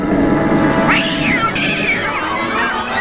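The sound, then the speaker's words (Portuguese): A cat meows loudly, a rising-and-falling call followed by a longer drawn-out one, over a steady low background hum with no talking. “Miau, miau. Miau, miau.”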